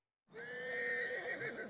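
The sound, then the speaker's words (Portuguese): A single loud horse whinny, played from a sound app called Cavalo 2, rises abruptly after a brief silence, its high, shaky tone sustained and trembling for over a second, with no talking. “O outro aplicativo é Cavalo 2.”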